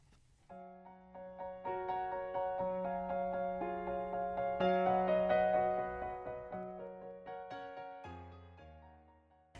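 A slow pop ballad plays on a late-night radio program, with sustained, shifting chords over a gentle steady pulse, building slightly in the middle before the arrangement changes near the end. No voices are heard.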